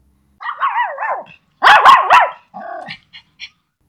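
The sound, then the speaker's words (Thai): A small white male dog named Tor barks and yips in quick, excited bursts while running and playing with a thrown stick at a housing estate in town at 5 pm, a few lively clusters of high-pitched barks with short pauses between them and no talking. “เธอกำลังวิ่งเล่นกับสุนัขเพศผู้ขนสีขาวตัวเล็กอย่างสนุกสนาน เอาฮึบ ท่อไปข้ามา เธอโยนไม้ในมือให้ลูกชายของเธอ เวลานี้เป็นเวลาออกกำลังกายของน้องท่อ”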